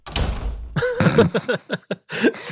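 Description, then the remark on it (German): A door slams shut with a heavy, booming thud, followed moments later by a person's voice in short bursts. “Hier ist die Tür.”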